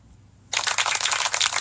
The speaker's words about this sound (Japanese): あ、でも拍手って最後の方までこう伸びていかないと、余韻がないと寂しいものがあるな。